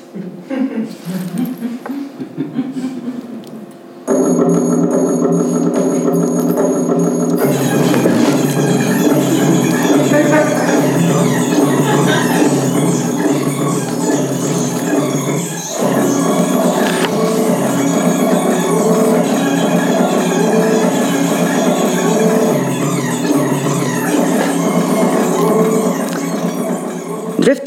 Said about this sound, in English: Here's the music video, but in fast forward.